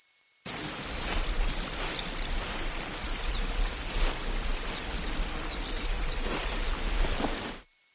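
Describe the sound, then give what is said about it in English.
Crickets chirp in rapid, shimmering pulses through a warm outdoor summer night ambience, with a thin, steady high-pitched tinnitus tone running underneath the whole time. No one speaks. “In the following example, the sound of the tinnitus disappears in a summer ambience with crickets.”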